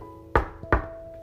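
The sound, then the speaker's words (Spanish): Two firm knocks on the door of a small shop, evenly spaced about a third of a second apart, resonant, over a faint steady hum with no one speaking. “Y en esta tranquilidad de sarcófago estaba hasta que tocan la puerta de mi changarrito.”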